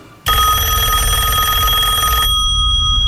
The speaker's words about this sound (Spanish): Y de pronto suena el teléfono.